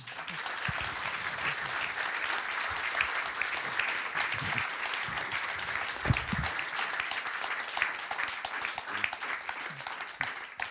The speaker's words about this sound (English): So uh, I'd like to thank you for being here, for giving us your views, and uh, would be nice if you give them an applause.